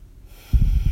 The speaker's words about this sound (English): And then just take another deep breath, as long or as short as you want it to be.